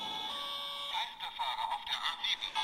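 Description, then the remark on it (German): A toy police car plays a tinny electronic sound effect: a steady high beeping tone, then a warbling, crackly stretch that may be a synthesized voice announcing a wrong-way driver on the A7, fairly loud. “Das Polizeiauto kann nämlich etwas.”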